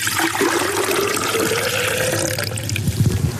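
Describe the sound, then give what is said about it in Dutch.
One precisely measured liter of water pours steadily into a container for a flower test, a continuous splashing rush with a rising gurgle, dense and fairly loud throughout, with no voices over it. “Een liter water. Want dat wordt precies gemeten, want anders hebben we geen gelijke test natuurlijk.”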